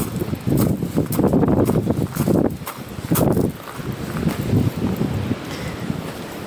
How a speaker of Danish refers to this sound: Det blæser ret meget i dag, det kan man måske godt høre.